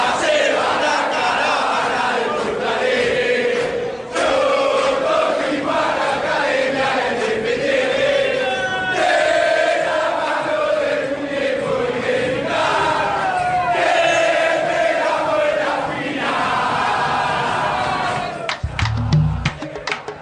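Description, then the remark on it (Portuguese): A large stadium crowd of River Plate football fans chants a reworked classic song in unison after the club won its fourth Copa Libertadores, a dense, loud wall of voices with a steady rhythmic melody that rises and falls, sustained throughout without pause. “O River Plate conquistava sua quarta Libertadores da América, Gajardo a sua segunda no banco de reservas e a torcida do River fez uma releitura de outro clássico sudaco.”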